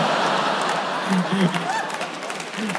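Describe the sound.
Scattered clapping from an audience begins to build, a dense crackling wash of hands with murmuring voices and a few calls rising through it, never swelling into full applause.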